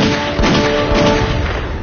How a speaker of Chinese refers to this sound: 就在所有乘客和工作人员刚要松一口气时，突然远处传来了三声枪响。